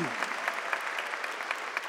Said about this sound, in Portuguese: Aplauda o Senhor, amados.